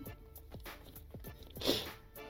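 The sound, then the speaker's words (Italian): Wet chewing with a series of soft crunchy bites in an uneven rhythm, then one louder, sharper crunch near the end; no talking. “Lei lo sbirciò masticando e imbrattando la tovaglia di briciole. Ah, deve masticare questa.”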